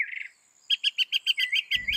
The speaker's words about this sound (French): Les moqueurs sont connus pour leur capacité à imiter d'autres oiseaux et certains sons de leur environnement à condition que ces sons-là tombent dans leur gamme acoustique.